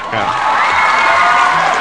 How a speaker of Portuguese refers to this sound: Palmas, sobe as palmas aí, ah, por favor.